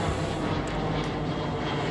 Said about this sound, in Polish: Samolot leci.